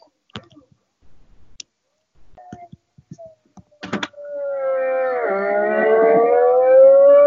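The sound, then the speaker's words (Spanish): A few scattered clicks and taps, then the six-cylinder engine of an old 1000 cc naked motorcycle howls in, holding a loud, smooth note that dips briefly and then climbs steadily in pitch as it revs up. “la antigua, la, Naked de mil antigua que, que seis cilindros también”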